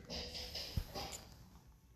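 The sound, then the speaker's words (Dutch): A dog snorts and sniffs, a quiet run of short, breathy nasal bursts with one sharper snort partway through, and no talking. “Altijd moeten de honden eh, irritant doen op de verkeerde momenten.”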